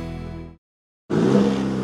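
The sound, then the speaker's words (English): The 2.7-liter high-output turbo engine of a 2023 Chevy Silverado pickup truck roars in after a brief pause of silence, a powerful, sustained rev with a deep rumbling tone, steady. “Hear that? That's the sound of the 2023 Chevy Silverado's 2.7 liter high output turbo engine, delivering 430 pounds per foot of torque with no compromised durability.”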